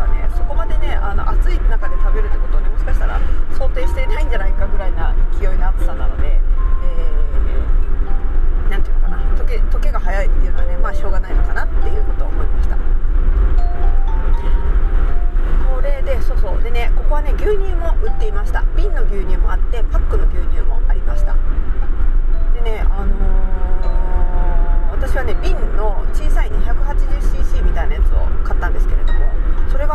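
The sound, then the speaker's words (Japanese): A steady low engine and road rumble fills the cabin of a moving car driving in Hokkaido, with the outside temperature at 33 degrees, for the whole stretch, with a person talking over it and a few faint clinks. “今ね、えーと、車を走らせてこの車の、ね、中の温度計を見るとね外が33度もあるんですよね”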